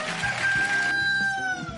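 rooster crowing

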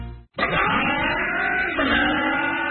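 car engine revving

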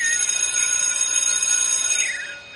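school bell ringing

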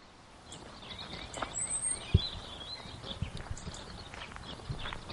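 birds singing

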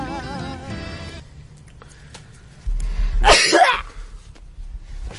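sneeze

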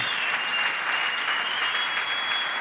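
audience applause

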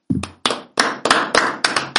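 applause

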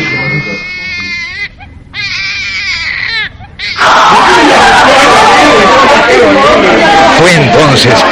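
newborn baby crying

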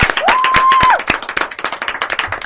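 applause and cheering

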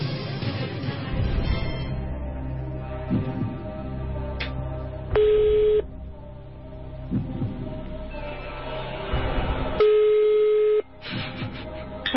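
telephone call tones

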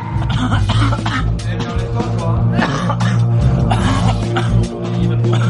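coughing

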